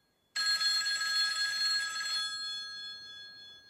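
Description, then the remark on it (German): A telephone bell rings loudly in one sustained metallic burst lasting about two seconds, its bright tones then lingering and fading away. No one speaks. “Oh, hoppla, das Telefon klingelt.”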